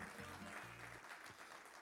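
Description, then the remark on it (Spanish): An audience claps steadily in applause to the Lord, a dense wash of many hands filling the whole clip, with low sustained tones like an organ or music running underneath. “Dele fuerte, fuerte, fuerte el aplauso al Señor, hermano.”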